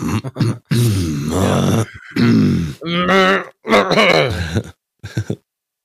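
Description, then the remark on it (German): A man makes a series of exaggerated, gruff throat-clearing and grunting noises, several loud bursts separated by short pauses, like a mock demonstration of clearing the throat. “Und danach machst du so, dann räusperst du den Bart so.”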